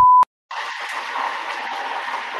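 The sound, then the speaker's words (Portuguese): A brief high beep, a short pause, then a steady, loud hiss and crackle of chicken being fried in a pan by a mother-in-law, going on without letting up. No one speaks. “Foi a sogra fritando frango.”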